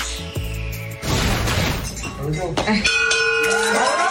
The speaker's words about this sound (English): Washington head coach Ron Rivera finishing up his last round of treatment at a DC cancer center to the applause of all the doctors and nurses there. Rivera ringing the bell on his way out.